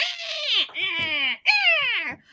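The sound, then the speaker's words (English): A voice imitates ice imps screeching: three high, wavering wails in a row, each sliding downward in pitch, loud and strained, with no other sound around them. “And uh you none of you speak ice imp, but you they're over there screeching and like”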